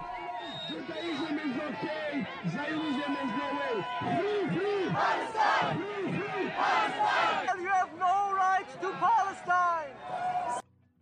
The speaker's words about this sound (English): So these these are Jews for Palestine getting yelled at that they're not real Jews by right wingers.